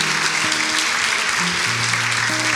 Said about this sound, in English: Can we just say thank you to our worship community, just with a round of applause, all of the worship community?